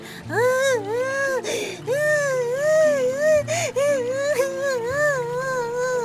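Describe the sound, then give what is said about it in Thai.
A high, wavering wail of crying from a young rabbit rises and falls in repeated sobbing phrases for several seconds, loud and continuous, with a soft lower tone sustained underneath. “เสียงร้องไห้ดังขึ้นอีก แต่คราวนี้ไม่ใช่เสียงของเจ้ากระต่าย เอ๊ะ เสียงใครกันน่ะ เจ้ากระต่ายครุ่นคิดอย่างสงสัย พร้อมกับเดินหาที่มาของเสียงนั้นไปเรื่อยๆ แล้วก็พบว่าเสียงร้องไห้นั้น เป็นเสียงลูกของมันนั่นเอง”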